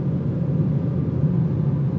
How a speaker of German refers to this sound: Äh, ich fahre mal noch ein bisschen, bis später